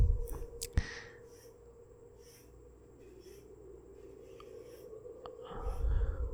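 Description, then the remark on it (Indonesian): A pen scratches across paper in short, soft strokes as someone writes a story, over a steady low hum, with a sharp tap near the start and some low rumbling toward the end. “Oh, jadi dia nulis nih di sini nih pas lagi nulis ceritanya dia kayak diganggu lagi nih.”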